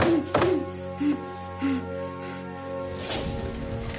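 Fists pound on a door in a few heavy, irregular thuds, spaced out over several seconds, with a steady low droning tone running underneath.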